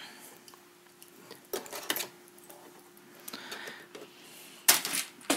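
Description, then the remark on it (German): A sewing machine stitches a hem in short, uneven bursts of mechanical clatter over a steady low motor hum, with quieter handling noises in between; no one speaks. “Ich habe jetzt fertig gesteckt und werde jetzt säumen.”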